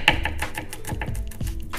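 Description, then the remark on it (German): A knife chops a regular onion into small, fine strips and then cubes on a cutting board in quick, steady taps, a dozen or so sharp knocks, with no voices. “Schneide auch die in kleine,”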